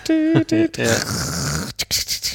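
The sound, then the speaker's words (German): A voice mimics a dial-up modem connecting to the internet: a couple of short, nasal tonal beeps, then a long harsh hissing screech, ending in a few choppy bursts. Fairly loud, with no other talking. “aber auch eine Sache, also muss ich sofort dran denken, der Klang eines Modems, das sich einwählt ins Internet.”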